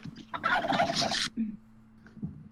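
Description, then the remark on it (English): A chicken lets out one loud, rapid burst of clucking lasting about a second, then falls quiet over a steady low background hum. “Is that my chicken?”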